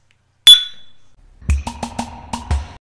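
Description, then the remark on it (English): One bright, ringing clink of beer glasses in a toast stands out and fades quickly, followed by a run of low, rhythmic gurgling pulses. No one speaks. “Pour me another glass from Beer 52. Cheers.”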